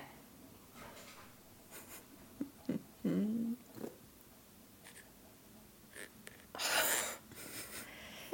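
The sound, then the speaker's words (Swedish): A cat meows once amid scattered scratching and scraping sounds, like claws working at a closed door, with a louder burst of scratching near the end. “Släpp in katten!”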